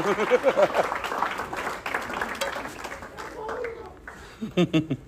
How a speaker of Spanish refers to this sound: un aplauso, eso se merece un aplauso.